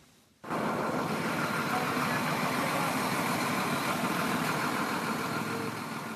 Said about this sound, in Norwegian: Det er natt i Matrice. Lydene veksler mellom gravemaskiner og redningsbiler som kjører inn i området, og så den totale stillhet. Hvor alle blir hysjet på og bedt om å være stille.